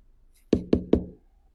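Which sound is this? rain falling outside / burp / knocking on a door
knocking on a door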